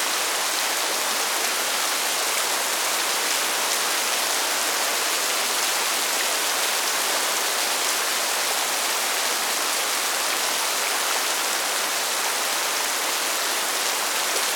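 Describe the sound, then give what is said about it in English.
Steady rain falls without pause, a dense, even hiss of drops spread across the whole clip at moderate loudness, with no voices or other sounds. “Der Regen. Der Regen. The rain.”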